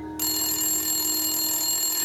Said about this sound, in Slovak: Nasledujúci deň sa na policajnej stanici ozýva zvonenie už o 7.30 ráno. Na druhej strane telefónu je rozrušený mužský hlas.